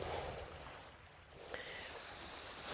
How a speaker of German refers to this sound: Und für mich zum Beispiel fühlt es sich jetzt absolut richtig an, an den Strand zu gehen und ja, und hier wird halt viel gemacht. Und ich stehe jetzt hier mit meinem Mikrofon. Du hörst vielleicht die, die Wellen schlagen.